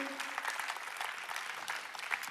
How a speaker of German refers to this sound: Wow, come on. Lass uns äh, für das einen Applaus geben, weil es ist äh, Kirchengeschichte.